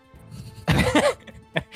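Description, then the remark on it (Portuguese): A person lets out a harsh, raspy cough, followed a moment later by a brief, smaller cough, over a faint hum. “Vamos cara, tossir é naquela mesa.”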